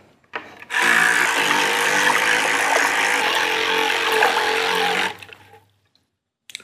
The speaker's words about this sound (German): Ist immer noch Wasser drin. Und wenn wir die jetzt da reinhalten und anmachen und mit den Händen noch ein bisschen Wassergeräusch dazu machen, dann haben wir ein sehr kleines Motorboot.